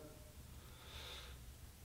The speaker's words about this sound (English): Um, it starts with, with just breathing, just taking a deep breath,